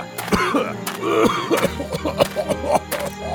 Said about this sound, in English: Is that a kennel cough?